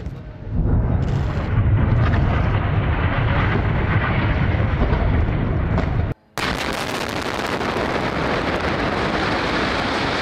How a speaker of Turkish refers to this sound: İsrail gece boyunca yine abluk altındaki Gazze'yi vurdu, savaş uçakları kente bomba yağdırdı.